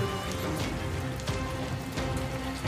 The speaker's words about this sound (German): Es, es, es, regnet halt immer noch im Strömen.